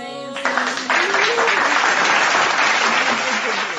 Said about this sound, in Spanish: ¡Aplausos!